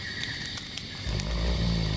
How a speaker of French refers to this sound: Ben bah voilà, elle dort. Super. Ah. Je lui fais une déclaration plus que larmoyante et la meuf, elle me ronfle à la gueule.